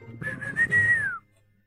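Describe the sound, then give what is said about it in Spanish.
A person imitates a wheezy, breathless whistle: one airy, sustained tone lasting about a second that dips at the end, fairly loud, then silence. “Porque empieza así como a silbar.”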